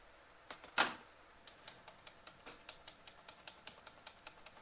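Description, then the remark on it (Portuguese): Rapid, irregular clicking of keys on a computer keyboard, starting with one louder clack and continuing as a steady patter of light taps, quiet, with no voices. “Ele punhetando aí o computador.”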